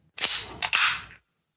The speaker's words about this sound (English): this is the sound of a gavel.